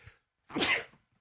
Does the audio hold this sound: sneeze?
yes